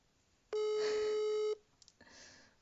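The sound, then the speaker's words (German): A single steady electronic ringback tone sounds for about a second over a speakerphone, loud and flat, followed by a couple of faint clicks and a soft hiss of line noise. “So, ich habe jetzt auf laut. Ich hoffe, das hört man jetzt über die Aufnahme.”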